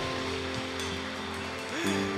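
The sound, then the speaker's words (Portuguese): A crowd applauds during a sermon, in a dense, steady wash of clapping that holds at an even level throughout, with a sustained low musical tone running underneath. “Dê uma salva de palmas aí.”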